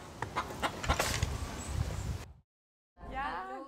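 bird, chickens clucking

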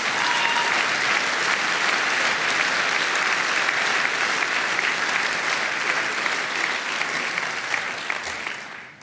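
crowd, audience applause

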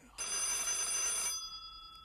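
household object, telephone ringing

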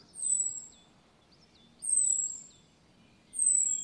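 bird, blackbird alarm call

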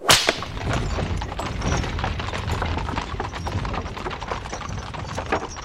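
animal, horse-drawn carriage hooves clip-clopping

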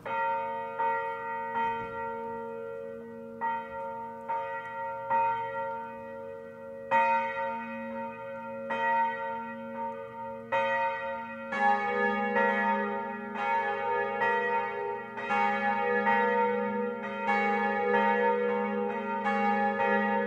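signal or alarm, church bells ringing

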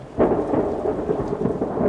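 nature, thunder

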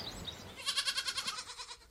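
animal, young goats bleating

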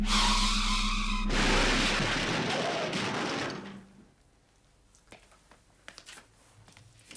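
vehicle, car crash

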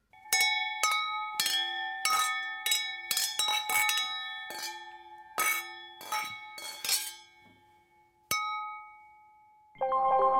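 household object, wine glasses clinking

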